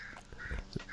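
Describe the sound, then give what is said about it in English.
A crow caws outdoors in the background, a few harsh, raspy calls in quick succession, fairly quiet, with no talking over them. “Oh, I, there's a crow in the background.”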